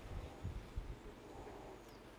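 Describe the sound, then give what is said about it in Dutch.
Soft wind gusts buffet the microphone, giving low, uneven rumbles and a steady faint hiss outdoors, with no voices. “Ik ga nou, het gaat nu net een beetje waaien.”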